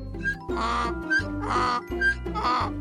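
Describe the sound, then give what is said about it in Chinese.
A donkey brays, standing for a boy turned into a donkey in a Pinocchio tale, in three loud, rasping bursts with short pauses between, its harsh tone alternating between higher wheezes and deeper honks, with no talking over it. “接下来，男孩的尖叫声就只能发出驴子的声音了。”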